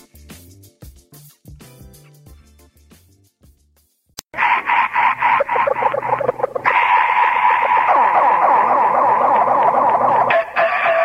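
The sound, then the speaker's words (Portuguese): A brief tinkling musical intro gives way to a loud, harsh rooster crowing on The Big Boy Show radio program, running continuously for about six seconds before cutting off abruptly; no one speaks. “O galo foi pra acordar você que está dormindo.”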